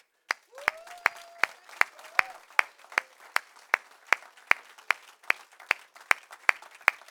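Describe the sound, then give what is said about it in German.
Congregation applause for Jesus: loud, evenly timed claps, about twenty in a steady beat, over a softer wash of scattered clapping, with a brief high whoop near the start. “Geh mal Jesus einen Applaus.”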